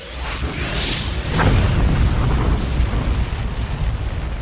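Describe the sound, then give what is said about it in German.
A deep explosion boom swells into a heavy, sustained low rumble, loud and roaring with no voices present: an asteroid entering Earth's atmosphere explodes over the Siberian steppe near Tunguska, Russia, on 30 June 1908, with the force of nearly 1000 Hiroshima bombs. “Ein Asteroid dringt in die Erdatmosphäre ein. Er explodiert mit einer Wucht, die fast 1000 Hiroshima-Bomben entspricht.”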